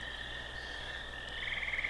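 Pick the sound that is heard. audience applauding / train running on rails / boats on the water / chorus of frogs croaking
chorus of frogs croaking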